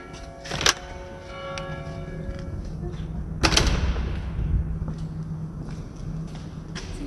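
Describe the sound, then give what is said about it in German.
A huge, heavy entrance door at Einsiedeln Monastery opens with two loud clunks a few seconds apart, each ringing out, followed by a low rumbling drag and faint room noise. “Schau mal die riesige Tür auf.”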